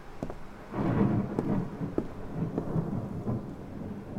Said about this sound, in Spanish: De pronto hubo un relámpago, seguido casi de inmediato por un poderoso trueno.